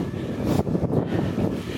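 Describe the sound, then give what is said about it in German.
Steady, loud wind buffeting a microphone outdoors as the wind picks up, a dense low rumble with gusty surges throughout, continuous with no other clear sounds. “Es windet ziemlich.”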